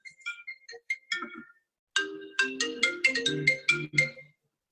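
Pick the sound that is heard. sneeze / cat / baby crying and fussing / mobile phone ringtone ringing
mobile phone ringtone ringing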